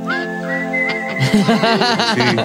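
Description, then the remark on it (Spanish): A person whistles a short signal call used by a group of friends: a rising note held steady, then a quick run of warbling up-and-down whistles, loud, with no talking. “¿Cómo, ¿Cómo es el chiflido de, los, de la banda?”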